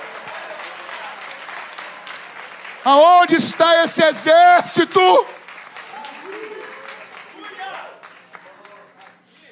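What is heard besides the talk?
audience applauding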